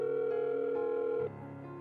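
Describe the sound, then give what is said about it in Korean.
A steady electronic telephone ringback tone hums continuously, shifting pitch slightly near the end, as a call rings out unanswered; repeated calls to a home phone and a mobile phone go unanswered. No voices, just the even tone. “아무리 전화를 해도 집 전화도 핸드폰도 받지 않는다.”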